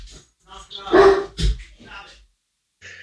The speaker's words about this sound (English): Oh, dogs. Sorry, oh, can you hold on? Hold on,